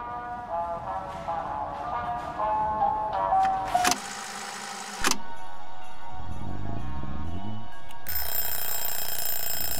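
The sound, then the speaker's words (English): A kitchen timer set for baking cookies rings loudly and continuously for several seconds, following a few moments of muffled clatter and tonal background sounds; no one speaks. “Oh, there's the timer.”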